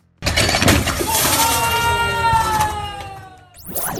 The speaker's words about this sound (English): she went viral for an Instagram video of a failed snatch attempt that sent a 235 pound barbell smashing through a plate glass window. I can't show you the video in a podcast, but I think you'll find the audio really does the trick.